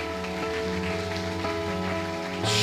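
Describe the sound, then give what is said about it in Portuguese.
A church audience claps for Jesus during worship, a steady, dense patter of many hands with no distinct beats, layered over sustained musical tones. The applause swells slightly louder at the very end. “Aplauda Jesus.”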